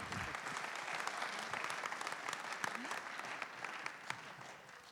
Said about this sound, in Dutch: Zullen we ze een applaus geven? Dankjewel.